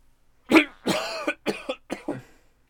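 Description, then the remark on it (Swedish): A person coughs several times in quick succession, starting with one sharp, loud cough followed by a few rougher, rasping hacks, with no talking. “Nej, för alltså, det är lyssnare som blir döva nu när jag hostar.”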